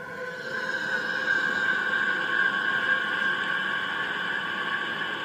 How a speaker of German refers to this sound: sie haben versucht, die elektromagnetischen Vibrationen in Klang umzuwandeln. Und das ist der Saturn.